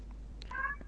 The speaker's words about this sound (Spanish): Pero no mause, como porque yo escucho que hacen miau, miau, no. No gatita. Eso no. Habla normalmente.